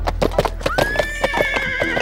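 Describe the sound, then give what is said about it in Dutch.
The horseshoes of Sinterklaas's horse, Ozosnel, clatter and jingle over rooftops at night in a quick, steady rhythm of sharp knocks while the horse lets out a long, high, wavering whinny over the trotting. No one speaks. “Rinkelend en tinkelend kletteren de hoefijzers van o snel over de daken.”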